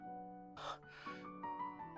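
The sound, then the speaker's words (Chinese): Heavy panting of a man bracing himself after chasing someone to the end of a small lane: a few loud, breathy gasps in quick succession, rough and hissing, over a steady, sustained musical drone. “他正有些沮丧地扶着身子，大口喘气。”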